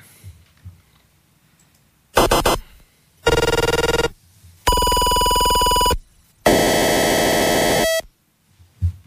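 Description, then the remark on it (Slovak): Four loud, harsh buzzing bursts of decoded 433 MHz pulse-width-modulated radio data signals, each about a second, separated by short stretches of quiet low hum, later bursts steadier and more tonal; the first two from a weather station, the next from a model remote control, the last from a car key fob. “Tak sme počuli, vás vlastne, prvé dva zvuky boli z meteorologickej staničky, ďalšie boli z ovladača pre model a ten posledný bola kľúčenka od auta.”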